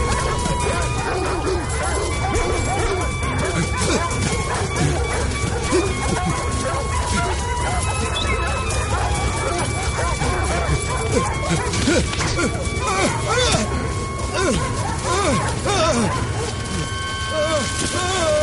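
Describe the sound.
Several dogs bark and yip excitedly in a dense, continuous chorus, loud, with whimpers and crashing noises mixed in amid shouting voices.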